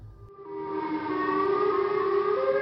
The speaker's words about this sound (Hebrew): פתאום שמעתי עוד אזעקה, אבל הפעם היא הייתה... היא הייתה שונה. נשמע כאילו הסירנה נשברה.